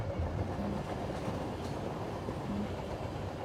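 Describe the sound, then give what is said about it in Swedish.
A train rumbles along railway tracks in a steady, continuous roar, loud, with a dense low-end rattle and no voices. “Och med en snabb järnvägsförbindelse får vi ett ännu bättre läge i landet.”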